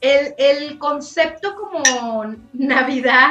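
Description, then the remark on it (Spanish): A single bright clink of glasses of red wine touching in a toast, short and ringing, in the middle of steady conversational speech. “salud, salud. Estamos aquí con nuestro riquísimo tinto.”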